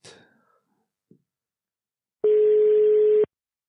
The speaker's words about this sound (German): Wir haben jetzt die Möglichkeiten, ihn telefonisch in unsere Gespräche zu integrieren. Und äh, schauen wir mal. Es tut es, jawohl. Es bämmelt.